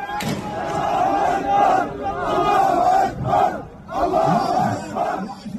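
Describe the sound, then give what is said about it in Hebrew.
Hundreds of young men, some armed with guns, chant and shout together in loud, surging waves at a funeral in Nablus for gunmen killed the day before, many voices rising and falling in rhythmic bursts with brief dips between them. “בתמונות שמלוות את הקולות האלה אפשר לראות מאות צעירים הם עומדים בצפיפות, בפנים גלויות, חלקם חמושים בנשק חם, הם מניפים אותו באוויר, יורים באין מפריע.”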